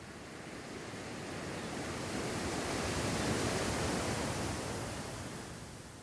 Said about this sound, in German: im Wissen, dass die Wellen kommen und dass die Wellen gehen.